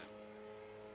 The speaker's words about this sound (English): I don't have a garden, it's my neighbours below, but they don't have any grass. So I don't know what that contraption is doing. Uh, I've just checked, it's a leaf blower.